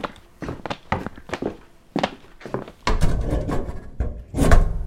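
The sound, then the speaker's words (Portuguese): Wooden cabinet doors knock and thud open amid rummaging through the cupboards of a police station: a string of sharp taps and clunks, then denser clattering and shuffling of objects, moderately loud, no voices. “Gaveta nunca escondeu nada de bom, então eu vou pros armários.”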